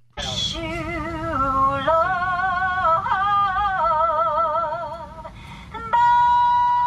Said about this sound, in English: a Southwest flight attendant singing a full throttle version of … at 6 a.m.